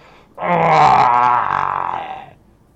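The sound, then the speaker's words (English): A voice lets out a loud, drawn-out monstrous scream, a strained, gravelly roar lasting about two seconds before trailing off, imitating the psychic scream of a creature whose eye stalk has just been split. “And you hear the psychic screams in your head.”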